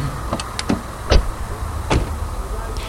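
Someone getting out of a car at 8 pm: a few quick latch clicks, then a solid car door thump and another softer knock over a low idling hum.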